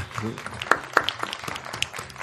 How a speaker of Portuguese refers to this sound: Grande salva de palmas